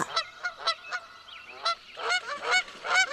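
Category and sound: bird, goose honking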